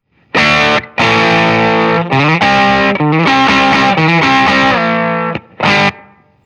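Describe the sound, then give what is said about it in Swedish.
A heavily distorted electric guitar on a preset called Semigate (trim up, filter almost fully down, volume up a little, tone in the middle) plays chords with abrupt cutoffs between hits, the gate chopping the sustain into tight, choppy bursts with brief silences; loud, no talking. “Du känner ja. att den gatar lite ja. under fingrarna?”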